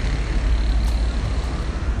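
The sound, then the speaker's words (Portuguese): Steady rumble of street traffic from passing cars, picked up outdoors, a continuous low-heavy wash of engine and tire noise at moderate loudness, with no one speaking. “Eu acho que o, a externa aqui deve ter pegado bem barulho de carro e tal.”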